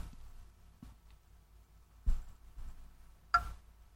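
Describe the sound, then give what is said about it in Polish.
Sparse, sharp clicks sound at irregular intervals over quiet background hum, with one brighter, louder click near the end: the JOS program installer, started by pressing Enter, clicking to signal installation progress on a computer. No one speaks. “prosił nas o wciśnięcie Enter, aby instalować program y, z mową i poinformował nas o tym, że klikanie, które się pojawi, będzie nas informowało o przebiegu instalacji.”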